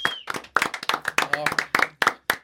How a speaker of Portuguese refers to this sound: Uma salva de palmas.